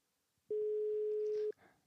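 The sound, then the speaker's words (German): A single steady telephone line tone sounds for about one second as a call is placed to Augsburg, loud and clear, then cuts off abruptly, with faint background noise before and after. “Kannst du äh, trotzdem noch an den Turntables die Kontrolle verhalten, damit ich zumindest in Augsburg anrufen kann?”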